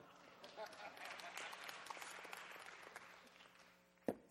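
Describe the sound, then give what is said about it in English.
An audience claps steadily in a dense wash of many hands, sustained for several seconds before tapering off, followed by a single sharp knock at the end. “Oh, you keep clap, you clap long enough, I'll have a drink.”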